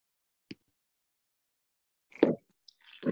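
Fireworks going off outside: a short sharp pop, then after a pause a louder booming burst and a few more crackling bangs, irregular and fairly faint overall, with no talking.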